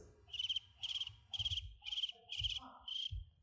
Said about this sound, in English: Uh, uh, but what, what scares me is if you were to ask many of these missional Christians to explain, say, the Great Commission, uh, or to give a simple gospel presentation, you would hear crickets.